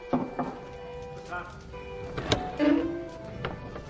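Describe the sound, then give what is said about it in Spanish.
At night, a young blonde woman who has crossed a palace courtyard knocks on a door: a few sharp knocks, spaced irregularly, heard over a soft sustained musical drone with some faint background movement. “Aún de noche, una joven rubia cruza un patio del palacio y llama a una puerta.”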